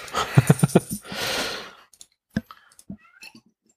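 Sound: cat meowing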